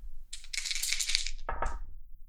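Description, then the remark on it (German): Two six-sided dice, rolled during a game, clatter and rattle briefly in a cup or across a hard surface, a bright clicking burst followed by a few sharper knocks as they settle, with no voices. “Britische Inseln, Zielgebiet. Würfel bitte.”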